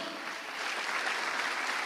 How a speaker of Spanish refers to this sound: Le da palmas al Señor.